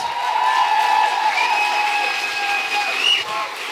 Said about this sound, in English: Big round of applause